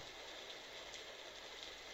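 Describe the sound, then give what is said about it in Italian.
Steady rain from a brief downpour pours down in a dense, even hiss with a constant patter of drops on a surface, unbroken, with no voices. “Sono tornata da un bel po', ma starmene a contemplare alla finestra uno degli acquazzoni di breve durata, classici di questo periodo, mi fa ripercorrere automaticamente tutti i fatti delle ultime ore, come capita spesso.”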